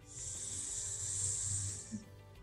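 A long, steady breath drawn slowly in through the nose during a breathing exercise, a soft airy hiss lasting about two seconds before trailing off, quiet over a faint low background hum.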